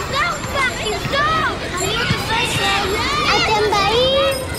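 Children playing and shouting together during the summer holidays, a busy overlapping babble of high, excited voices with rising and falling calls and squeals that continues steadily throughout without a pause.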